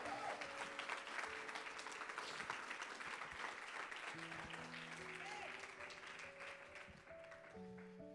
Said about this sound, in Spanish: Alguien que, alguien que lo crea y le dé un aplauso al Señor.